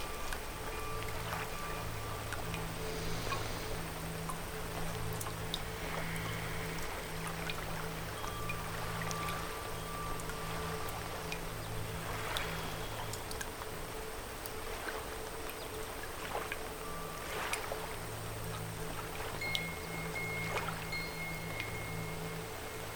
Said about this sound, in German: er merkt, wie immer weniger Tröpfchen in die Wasserlache hineingehen. Bald sind es nur noch einzelne.